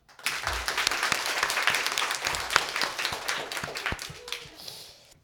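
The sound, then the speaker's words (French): A CM1C class of children applauds the winner of the 2018 Rallye Lecture reading contest, who read 16 books in 15 days. The steady applause lasts about five seconds, a dense patter of many hands clapping at once, with a few sharper claps standing out before it tapers off. “Je pense qu'on peut le féliciter bien fort.”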